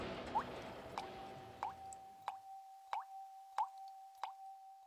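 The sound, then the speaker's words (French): Water drips from a water clock (clepsydra) at a steady, even pace, about eight clear plops in a row, each with a faint ringing tone, after a brief wash of background noise fades. “Le mot du jour, la clepsydre.”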